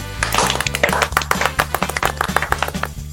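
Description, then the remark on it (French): A single person applauding himself, a quick run of sharp, slightly uneven claps lasting a few seconds over a steady low musical bed. “Je me suis applaudi.”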